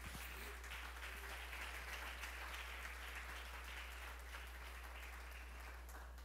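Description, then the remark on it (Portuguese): An audience applauds God steadily, a dense wash of many hands clapping at an even level for several seconds, with no one speaking over it. “Vamos aplaudir a Deus porque ele merece.”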